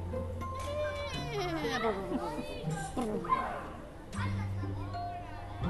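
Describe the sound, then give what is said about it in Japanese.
Children's voices call and chatter over one another, high-pitched shouts rising and falling continuously above a steady low background hum, from children in a school playground on a quiet holiday. “今日はだから雑音が入るけれども、うん、まあいつものあのさガンガンガンっていう雑音よりかはさ子供のなんかねなんかこう平和な感じになる”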